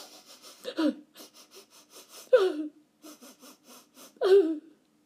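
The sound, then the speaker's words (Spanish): A voice imitates Madame Tic-Tac crying faintly in a whisper: quick breathy sniffling pulses broken by three louder whimpering sobs, fairly quiet, with no other speech. “Entonces Madame Tic-Tac comenzó a llorar. Primero, débilmente y en un susurro.”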